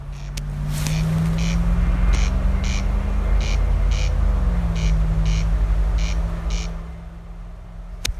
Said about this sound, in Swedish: Jajamän, kornknarren börjar faktiskt eh, knarra exakt när vi stod här då.